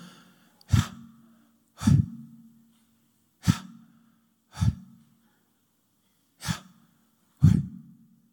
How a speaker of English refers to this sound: And it goes a bit like this in that when you breathe through your mouth, you do this, you go,